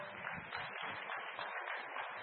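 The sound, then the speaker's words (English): A church audience claps hands for Jesus after a prayer, in a dense, continuous patter of many overlapping claps, steady throughout, with no clear individual beats. “Come on, put your hands together for him. Clap your hands, for you people.”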